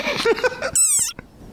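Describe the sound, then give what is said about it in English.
A very angry desert rain frog lets out a shrill, squeaky war cry, rising and wavering like a squeezed rubber dog toy, loud, ending abruptly after about a second with a faint click. “But actually, this is the sonorous war cry of a very angry frog.”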